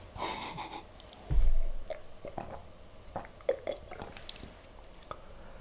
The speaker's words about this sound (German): Ich trinke einen Schluck Wasser.